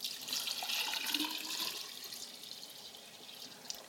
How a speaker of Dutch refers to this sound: Dus ik kan gewoon eens gaan kijken wat er gebeurt, moest ik daar gewoon water op gaan gieten. Dus ik kan dat water hier bijvoorbeeld op dat gescheurd beton gaan gieten.